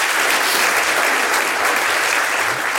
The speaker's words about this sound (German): Ja, aber das erstmal Ihr Applaus.